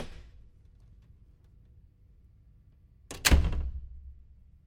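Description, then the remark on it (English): After a few seconds of near silence, a door opens with a single solid clunk of the latch and a short rattling thud that fades quickly. No one speaks. “All heads turned to the door. In comes Doris, who greeted them all with a smile.”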